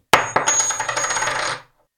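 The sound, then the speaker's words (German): A heavy 50-peso coin is dropped and strikes a hard surface with a sharp metallic clink, bounces once, then spins and rattles rapidly for over a second before settling into silence. Clear, no voices. “Den lasse ich jetzt mal fallen. Ziemlich schwer, die Münze.”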